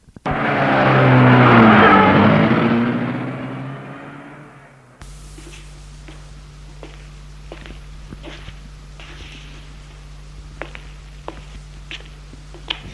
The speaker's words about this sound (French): La voiture démarre.